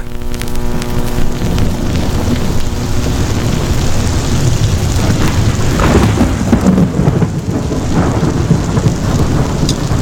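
A steady thunderstorm with heavy rain pouring down throughout, deep rumbling thunder rolling underneath, loud with no voices present.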